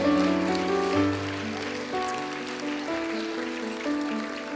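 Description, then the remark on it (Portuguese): An audience claps steadily for several seconds, applauding the Lord with joy: a dense crackling wash of applause over sustained keyboard or organ chords. It stays loud throughout, with no voices talking over it. “Será que nós podemos aplaudir mais forte ao Senhor, com alegria, regozijando ao Senhor?”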